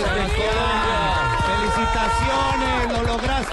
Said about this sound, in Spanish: Para él, Sebas, escucha este fuerte aplauso.